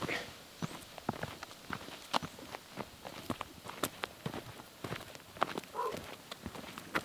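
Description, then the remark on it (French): Steady footsteps crunch along the gravel or dirt Penouille trail by Gaspé Bay at a relaxed walking pace, each step sharp, with quiet outdoor ambience between them and no talking. “on sort euh, du, sentier de la Taïga, on prend le sentier de Penouille, on va marcher 10 minutes, on arrive à un air de jeu.”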